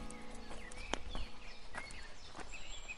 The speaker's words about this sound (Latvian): Atgriežoties uz takas, man sagaidīja mieres putnu čivināšanu, priežu sveķu smaržu un mani soļi, slāpēti augstlīgajā augsnē.